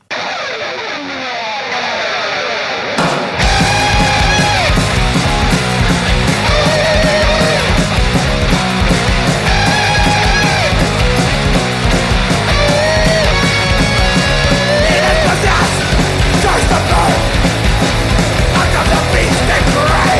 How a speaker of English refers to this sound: This next song should be familiar to a lot of you … fans.